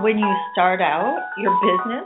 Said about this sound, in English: sorry, that's my alarm clock.